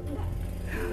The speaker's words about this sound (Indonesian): Aduh itu suara motor.